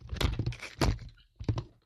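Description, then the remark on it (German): A phone, held just above the floor, slips out of a hand and drops onto the floor: a loud clattering thud, a second impact as it bounces, then a softer third knock, with no voices. “Hier ist es mir aus aus der Hand.”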